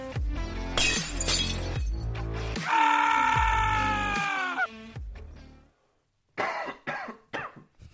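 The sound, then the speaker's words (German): A loud coughing fit: several harsh, rasping coughs in quick succession, a strained drawn-out wheeze, a brief pause, then another burst of hacking coughs. “Ich bin nur noch am Husten, das regt mich auf, Alter.”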